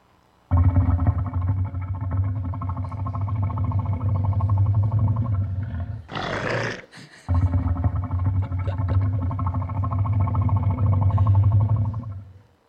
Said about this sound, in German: Tja, jetzt bleibt noch das Nilkrokodil und wie sich das anhört, das hört sich so an.